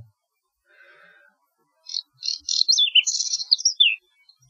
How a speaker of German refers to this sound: War da nicht das Braunkehlchen Vogel des Jahres? Das habe ich auch gehört. Ich wusste gar nicht, dass es auch braune Kehlchen gibt.